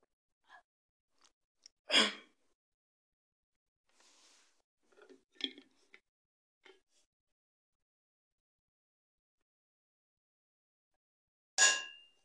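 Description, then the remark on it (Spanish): Someone drinks water from a glass: a bright clink of the glass, faint sips and swallows, a pause, then another sharp glass clink. No talking. “Permítanme, déjenme tomar agua porque esto de hablar sí que es muy, pero muy, pero muy cansado.”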